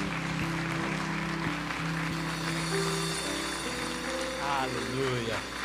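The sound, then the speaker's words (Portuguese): A large crowd in a church claps steadily and continuously in the morning as praise and gratitude to God, a dense wash of hand clapping with sustained keyboard tones beneath and voices rising briefly near the end. “Receba a nossa gratidão, o nosso amor, o nosso louvor através das nossas palmas nesse momento, ó Pai.”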